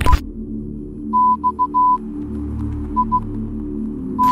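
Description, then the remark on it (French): Morse code beeps spelling out the message "Exit Music 111": a steady high tone keyed into short and long pulses in uneven groups, over a low droning hum with no voices. “il s'agit d'un audio du nom de scouttoujoursmp 3 et il s'agit tout simplement d'un euh, message en morse”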